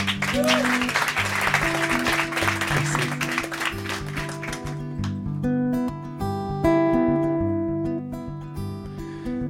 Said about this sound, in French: Saïkali on peut applaudir.